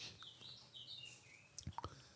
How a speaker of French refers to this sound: Je m'excuse pour les oiseaux, mais euh, je ne vais pas prendre mon fusil pour... Euh, les shooter, les pauvres. Donc, euh, bah, je laisse mes, les oiseaux. Ça fait un petit fond sonore sympa.